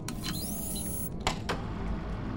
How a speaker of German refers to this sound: Vorsicht, Bitte lehnen Sie sich zurück, damit wir die Leinwand ausfahren können.